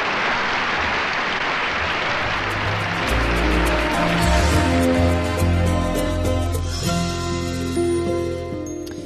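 A burst of clapping, like a crowd applauding, fills the first few seconds before sustained tonal sounds rise beneath it and the whole thing slowly fades out.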